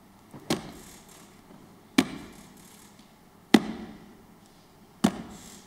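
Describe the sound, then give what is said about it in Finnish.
Four slow, heavy footsteps land at an even pace, each a sharp, weighty thud with a short ringing tail, with no voices. “Me saamme kuulla sillä paratiisissa juhlan askeleet.”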